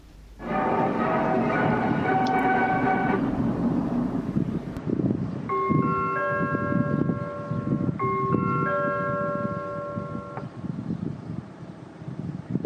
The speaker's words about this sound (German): Leider ging der Wind ziemlich stark und es fuhren Autos vorbei